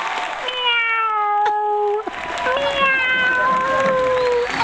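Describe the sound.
A person imitates a cat as one of a series of ten animal calls, giving two drawn-out, wavering meows in a high, nasal voice, with a brief gap between them and a noisy crowd-like background throughout.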